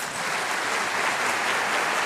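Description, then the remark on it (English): A steady burst of crowd applause, many hands clapping at once in a dense, even wash of sound that stays loud for about two seconds with no voices over it. “Kristen, can we get some applause”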